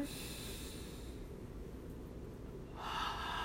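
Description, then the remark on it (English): A long, deep inhale drawn through the nose, steady, rising into a louder, airy rush near the end, taken during a guided breathing exercise. No talking. “Breathe in the roses.”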